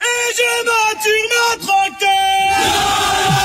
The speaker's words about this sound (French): Et d'ailleurs, j'ai hâte d'entendre les premiers chants des agriculteurs.